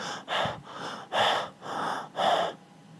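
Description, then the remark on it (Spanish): A person demonstrates centered breathing, breathing in and out audibly, calm and cyclical, about five even breath cycles in steady rhythm, each breath a soft airy rush with no talking. “¿Ves cómo se escucha esa respiración mucho más diferente a”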